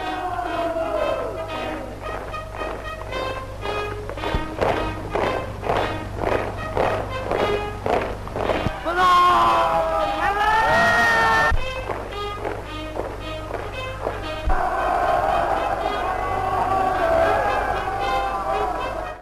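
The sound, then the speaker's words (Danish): A 1938 Japanese propaganda recording: steady, rhythmic tramp of marching Japanese soldiers' boots fills the first half over a low hum, then a crowd holding Japanese flags bursts into loud cheering and shouts of hurrah, with the marching and cheers returning together. “Det vi hørte her var et øh, klip fra japansk propaganda fra 1938, hvor marcherende japanske soldater tiljubles af folkemængden, der står med japanske flag og råber hurra efter store militære sejre over Kina.”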